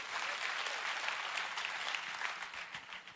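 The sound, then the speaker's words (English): A church audience claps steadily for about three seconds, a dense, even wash of many hands with no voices rising above it, easing slightly toward the end. “Come on, if you're gonna clap, let's do it well.”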